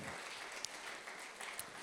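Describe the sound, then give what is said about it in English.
A crowd applauds steadily for about two seconds as people are called up on stage, a dense, even wash of clapping with a few sharper claps and faint cheering mixed in, no speech over it. “Cheer, cheer them on, people.”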